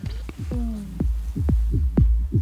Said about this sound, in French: C'est un set, c'est l'Igloo Fest euh, à Toronto, au Canada. On va pas réussir à écouter tout le set, mais comme ça on aura une, euh, idée de ce que tu nous proposes.